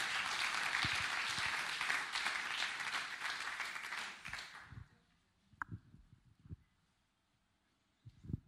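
An audience applauds loudly, a dense wash of many hands clapping that cuts off after about five seconds, followed by a few scattered knocks and thumps in near-silence.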